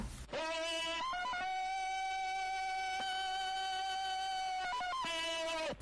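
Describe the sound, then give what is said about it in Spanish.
A loud, drawn-out yodeling Tarzan jungle yell, a sound registered as a trademark: one long sustained cry that flips sharply between registers near the start and again near the end, with no talking. “¿El grito de Tarzán?”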